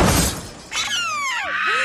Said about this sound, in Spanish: Entonces, otro accidente de carro.